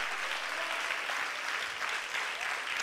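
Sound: audience applauding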